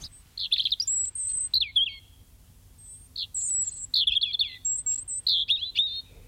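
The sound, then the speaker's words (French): A European robin sings a varied, high-pitched song of thin warbling phrases and sweet trills, delivered in short bursts with brief pauses, clear against quiet background rumble. “Et le rouge-gorge, lui, il fait ça.”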